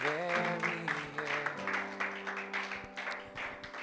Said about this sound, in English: Can you give God a round of applause tonight? Come on, like we mean it. Amen.